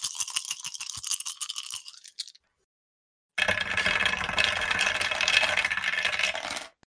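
A handful of dice, eight six-sided dice rolled for damage in a tabletop role-playing game, rattles with sharp, clicky taps for about two seconds, then after a short silence they tumble and roll in a loud, continuous clattering rush before stopping abruptly. No talking.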